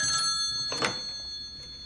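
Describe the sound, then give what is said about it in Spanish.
A telephone rings with a steady, high-pitched electronic trill, and a brief clunk sounds partway through as the handset is picked up. No one speaks. “Va hacia el teléfono y descuelga.”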